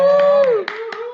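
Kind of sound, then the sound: crowd, hand clapping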